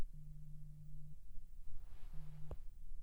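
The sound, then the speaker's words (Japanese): A phone rings with two steady low electronic tones separated by a pause. The second ring is cut short by a sharp click, with no voices present. “いい電話に出ている場合じゃない今は君と話をすることが最優先だ”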